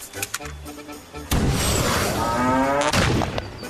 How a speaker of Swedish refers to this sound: Nu har du bara ett enda skott kvar Ted och måtte du ha huvudet på skaft! Ted siktade och avfyrade sitt sista skott.